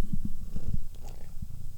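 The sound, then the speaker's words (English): A female cat purrs right up against the microphone, a low rumbling throb with a steady pulsing rhythm and a few soft breathy clicks, no voices present. “She's purred into the mic a bit.”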